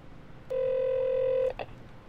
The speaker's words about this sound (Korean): 여기 어디 매복하고 있을 텐데 애들 일 끝나기 기다리면서 똘마니 핸드폰으로 최석원한테 전화를 걸어본다